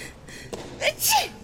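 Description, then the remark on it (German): A single sneeze from a person with a fresh cold: a sharp intake of breath followed by a bright, explosive burst, loud, with no talking around it. “Äh, Gesundheit, ja, das war der äh, frisch erkältete”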